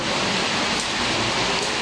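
Steady rain pours down in a dense, even hiss that fills the whole clip, loud with no breaks or voices.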